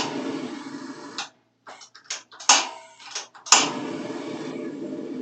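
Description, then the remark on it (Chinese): The centre burner of a gas stove is lit for making caramel pot-boiled milk tea: a short run of sharp igniter clicks, then a sudden whoosh as the flame catches and settles into a steady, broad hissing roar. No one speaks. “好，开启你的炉心火，就是最中间的炉心火。”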